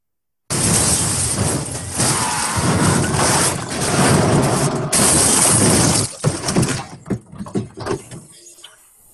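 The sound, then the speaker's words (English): A car slams into a construction site with a sudden, loud, sustained crunch and roar of breaking material, then debris clatters and settles in scattered bangs. No one speaks. “That's that's uh, the car accidents.”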